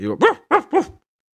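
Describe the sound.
A short run of three sharp, evenly spaced dog barks, heard from a distance, coming right after a brief vocal sound; the barks seem to be a human voice imitating a wolfdog that is running back happily.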